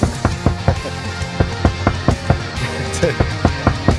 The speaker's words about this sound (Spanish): Y eh, están en la puerta, están tocando la puerta. Un momento, a ver.